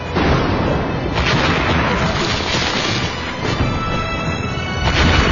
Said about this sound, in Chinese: 哎呀，电闪雷鸣的，容易出事啊！